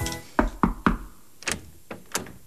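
household object, knocking on a door

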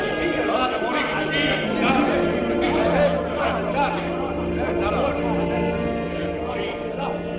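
crowd, crowd shouting

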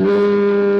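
household object, doorbell ringing

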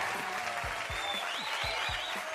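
sound effect, applause sound effect

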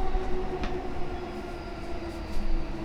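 vehicle, commuter train running

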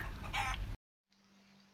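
bird, chicken clucking

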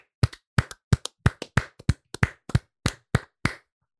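crowd, hands clapping

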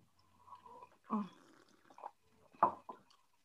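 human body sound, slurping a drink

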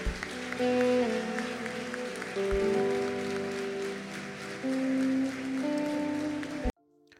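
crowd, audience applause

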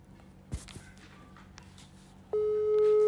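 signal or alarm, telephone ringback tone

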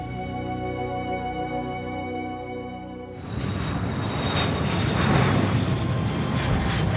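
vehicle, airplane engine in flight

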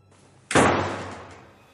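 household object, door slamming shut

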